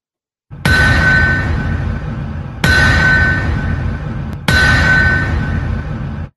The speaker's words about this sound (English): Because that's the opening bell of the season.